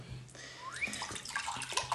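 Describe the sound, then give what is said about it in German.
Water pours steadily into a glass, a gurgling splash whose pitch climbs as the glass fills, lasting about two seconds with no one talking. “Ist noch Wasser? Ein Bisschen? Ja.”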